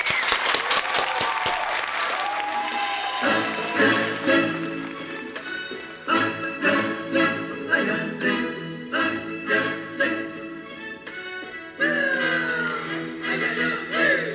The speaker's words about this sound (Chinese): 好的，来，掌声欢迎。